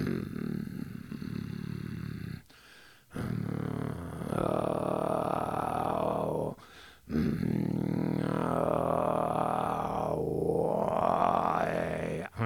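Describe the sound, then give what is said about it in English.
A low, rough throat-singing growl held in long, loud breaths with brief pauses between, its resonance shifting and wavering as whistly overtones are attempted but only faintly emerge. “I'm not hitting it. I'm not getting the overtones the way I want.”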